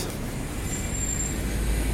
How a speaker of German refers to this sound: Warte, Busse. Nicht mal Busse äh, kümmern sich um Zebrastreifen.